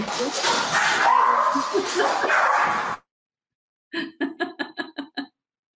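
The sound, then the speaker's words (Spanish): Dogs in a loud, scuffling commotion of barks and whining, then after a brief silence a quick run of about seven sharp, evenly spaced yips. “Disculpen, mis perros tuvieron un pequeño, una pequeña intensidad.”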